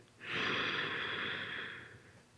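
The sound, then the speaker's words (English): A single slow, deep inhalation drawn in through the nose during a guided deep-breathing exercise, a soft airy hiss that swells quickly and holds steady for about two seconds, with no talking. “And another breath in”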